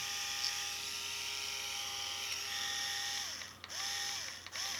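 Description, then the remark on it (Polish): A rotary electric shaver whirs steadily with its heads removed, a bright buzzing drone with a rattly mechanical edge that dips briefly twice near the end. “Tak urządzenie pracuje bez głowic.”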